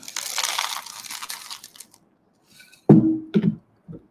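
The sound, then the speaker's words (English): Dry cereal pours into a bowl with a dense, crackly rattle for about two seconds, followed after a short pause by three hollow knocks, fairly loud, with no talking. “Give me your bowl, please.”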